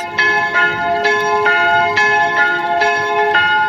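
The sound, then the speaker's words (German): The town hall (Rathaus) bells of Basel, Switzerland, ring out in a steady, overlapping peal, each stroke bright and resonant with long shimmering overtones, struck roughly every half second and sustained without pause, fairly loud. “Das sind die Rothausglocken von Basel, vom Rothaus, wo am 17.”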